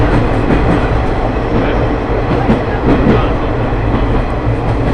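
The Ai Yoshinogawa Torokko trolley train on the Tokushima Line in Mima City, Japan, rolls steadily along the rails, its dense, continuous rumble loud and unbroken, with a faint rhythmic clatter of wheels running through it and no voices.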